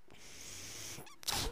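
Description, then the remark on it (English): A person's medical ventilator runs with a steady airy hiss, then a short, sharper rush of air near the end of its breathing cycle. No one speaks. “That noise you're hearing is my ventilator.”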